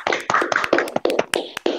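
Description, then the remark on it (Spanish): A short burst of applause: many hands clapping in a dense, irregular patter of sharp claps, fairly loud and steady for under two seconds, with no voices over it. “Un aplauso, por favor.”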